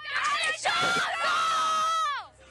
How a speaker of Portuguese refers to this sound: Então eu quero saber se tem animação, no 3, todo mundo gritando. Mas vai ter que gritar o nome do boi. Quero ver se ela vai gritar mais alto. No 3. 1, 2, 3.